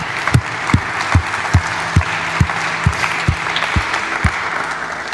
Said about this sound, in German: Lasst uns einen großen Applaus geben.